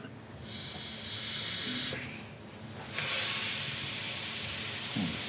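air hissing

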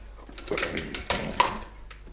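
doorbell ringing

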